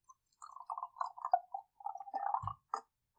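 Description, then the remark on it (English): Red wine glugging as it's poured into a glass: a run of bubbly, gurgling pulses, then a soft low thump and a brief clink at the end. No one speaks. “Pour my glass. Fill my yeah. glass with some red because it's cold outside.”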